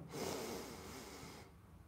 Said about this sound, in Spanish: Simple y sencillamente vas a respirar, vas a contar hasta 5 respirando. Yo sé que te vas a llenar muchísimo, pero lo haces, ¿ok? O sea, cuentas 5, vamos a hacerlo.